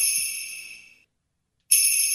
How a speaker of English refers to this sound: this is the sound of our dog ringing the bells hanging on the door to go outside.